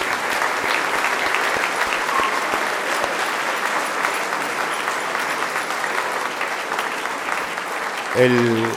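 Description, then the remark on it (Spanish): Sustained applause from a community gathered at a celebration, a dense steady patter of many hands clapping for several seconds, with a voice briefly starting to speak near the end. “Un aplauso para todos ustedes, hermanos.”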